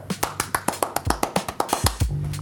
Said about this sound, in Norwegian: Applaus.